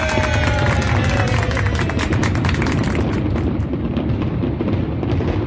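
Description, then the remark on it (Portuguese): A fireworks sound effect: dense, continuous fireworks crackle and pop for several seconds, with booming bursts, sizzling high-end crackles and a rumbling low end, loud, with faint crowd noise mixed in. “E os fogos a gente coloca aqui porque é só um podcast, né?”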